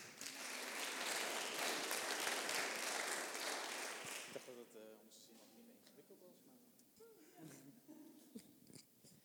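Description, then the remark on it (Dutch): An audience applauds a pitch at an award presentation, clapping loudly for about four seconds, a dense crackling wash of many hands, then the clapping thins out and fades while people begin talking. “Applaus.”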